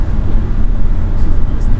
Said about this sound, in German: Okay, das ist echt schlecht. Ja, egal. Der Wind ist ja. am Pfeifen. Der Wind ist am Pfeifen.